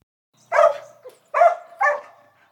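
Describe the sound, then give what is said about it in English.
A sheepdog, a herding dog, barks three times in a loud series of sharp woofs with short pauses between them, and no other sounds around. “A sheepdog. That might sound like just a regular dog to you, but I'll explain why it's special”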